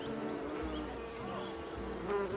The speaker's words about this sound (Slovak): Pozoruje včely, ktoré hypnoticky preskakujú z kvetu na kvet bielej čerešne.